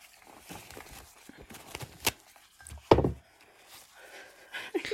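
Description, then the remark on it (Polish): A loud nose blow: a short snort, then a longer forceful honking burst, with faint rustling and small knocks around it and no talking. “O muszę sobie zmarknąć.”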